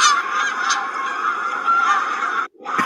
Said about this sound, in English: what is that now? Those are the geese flying south. Oh. Those are the geese flying south. oh, geez. So still got geese here, plenty of them.